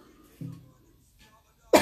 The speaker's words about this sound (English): Ooh, you know, can't get can't get an episode going without a cough